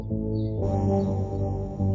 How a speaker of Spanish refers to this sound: Miren ahí las, los, los órganos que van bajando